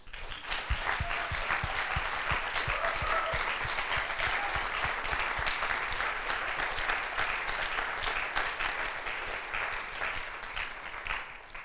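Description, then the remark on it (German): A church audience applauds steadily and energetically for the leadership and the worship team, a dense wash of many hands clapping for about twelve seconds, with no one speaking over it. “ich würde sagen, lasst uns einfach nochmal der Leiterschaft, lasst uns dem Lobpreis an allen, die das möglich machen, einen großen Applaus geben.”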